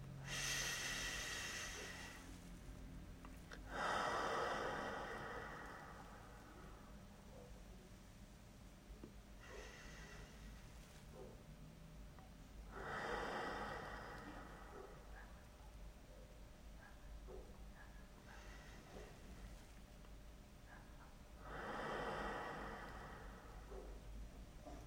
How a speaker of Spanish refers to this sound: Y vamos a comenzar esta práctica para tener atención plena de nuestro malestar, tomando tres respiraciones lentas y profundas. Inhalamos por la nariz y exhalamos por la boca.